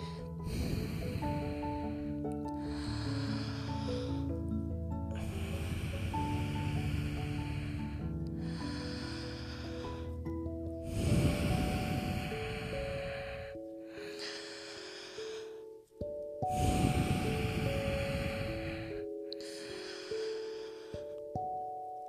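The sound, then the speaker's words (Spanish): Slow, drawn-out breaths in a breathing exercise, long three-second inhales through the mouth and three-second exhales in a steady rhythm, fairly loud over a sustained musical backdrop. “Y vamos a inhalar por la boca. 3 segundos largos. Vamos, exhalamos tres segundos, inhalamos tres segundos.”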